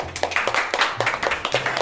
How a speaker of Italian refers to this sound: E allora qui con noi le accogliamo con un applauso